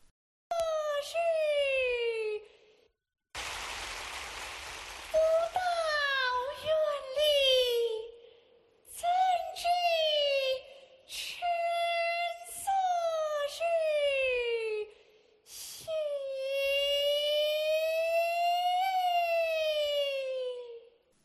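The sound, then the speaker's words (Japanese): Kunqu opera singing from a recording of southern-style Kunqu from The Peony Pavilion: a high, piercing voice glides through long ornamented phrases separated by short pauses, with a brief noisy instrumental burst early on, loud. “これがおそらく多くの人のイメージの中に出てくる根劇」の歌です。”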